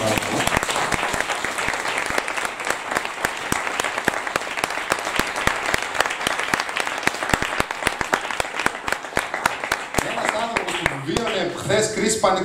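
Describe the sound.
Sustained audience applause, a dense wash of many hands clapping at a steady loudness for about ten seconds, thinning out near the end as a voice starts talking.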